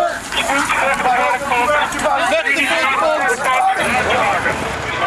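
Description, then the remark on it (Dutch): A loud, chaotic crowd at a party that got out of hand on a Saturday evening in The Hague, turning aggressive toward police, fills the scene with overlapping shouting voices, a dense continuous hubbub of agitated people with no single speaker standing out. “Ik las eerst het bericht in NRC Handelsblad over een uit de hand gelopen feest afgelopen zaterdagavond in het uh, in Den Haag. Eh, dat klonk zo.”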